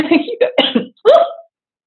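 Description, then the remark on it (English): Several quick, harsh coughs come in a close cluster, followed by a short throaty voiced sound as the person recovers; no words are spoken. “sorry, a little bit of a cough there.”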